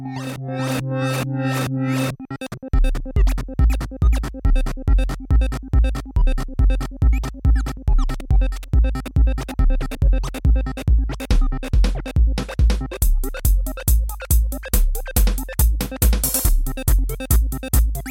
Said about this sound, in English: And to foreshadow the next episode of Fun with Synthesizers, I think that our sound would be really nice with an arpeggiator. So let's try out that.